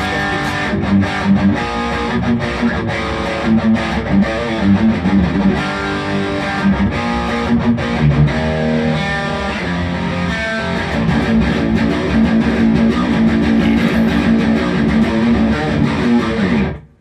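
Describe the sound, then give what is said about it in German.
A distorted electric guitar plays dense, sustained chords and riffs through a gritty, crunchy amp tone with the gain set to 5, a vintage sound, loud and continuous throughout before cutting off abruptly at the end, with no voices. “wie viel Gain hast du da drin? Ich habe jetzt auf 5”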